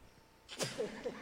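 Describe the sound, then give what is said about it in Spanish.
A single sharp sneeze bursts out after a brief quiet stretch, followed by a short voiced tail as the breath trails off. “un estornudo cargado de unción.”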